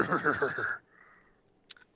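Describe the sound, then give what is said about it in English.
A person imitates a horse whinny with their voice, a loud, wavering neigh lasting under a second, followed by near-quiet and a couple of faint, brief clicks. “I'm not a horse.”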